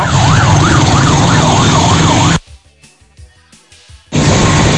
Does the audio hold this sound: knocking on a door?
no